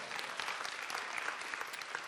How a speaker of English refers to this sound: Give yourselves a hand clap this morning.